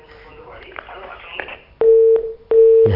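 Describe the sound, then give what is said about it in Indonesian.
A muffled, noisy phone line from a caller's call is cut off and gives way to a loud busy tone: two steady, evenly spaced beeps, each lasting under half a second, with a short gap between them. “terputus ya.”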